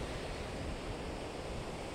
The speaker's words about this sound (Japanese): この波の音がよく入っているといいなと思いながら収録しております